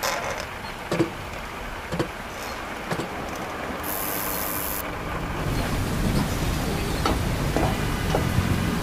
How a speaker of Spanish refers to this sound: La puerta se abrió.